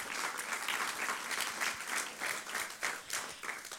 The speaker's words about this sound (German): So, vielleicht können wir Ihnen auch mal einen Applaus geben.